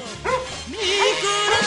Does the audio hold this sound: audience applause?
no